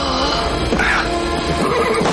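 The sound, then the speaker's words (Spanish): A horse whinnies briefly and loudly during a gunfight, as a man shoots from behind it and Wyatt drives the animal off with a shot, over a dense, noisy background of commotion that fills the whole moment. “Otro de ellos les dispara tras un caballo y Wyatt ahuyenta al animal con un tiro dejando al forajido sin protección.”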